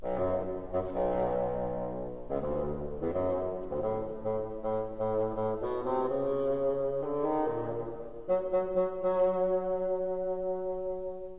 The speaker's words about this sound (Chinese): 刚才的乐器是不是很低沉呢？小朋友，你觉得它像是谁的声音呀？没错，它就是老爷爷的声音。他的声音呀，是由一种乐器叫做巴松管来扮演的。巴松管啊，是一个很长很长的乐器，可能比你还要高呢。